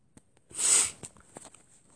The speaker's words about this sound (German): Äh, ich bin immer noch verschnupft, deswegen schnupfe ich eben, schniefe ich manchmal so.